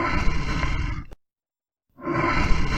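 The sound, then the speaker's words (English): A gorilla roar: a loud, rough, growling blast lasting about a second, a sudden break of silence, then the deep roaring starts up again. No one speaks over it. “Is it a gorilla? Good job.”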